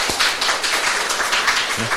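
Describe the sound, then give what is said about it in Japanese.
A church audience applauds steadily for two seconds during a worship service, welcoming a guest singer, a dense, even wash of many hands clapping at moderate loudness, with a faint voice briefly audible near the end. “皆さん拍手を持って歓迎いたしましょう、ね、”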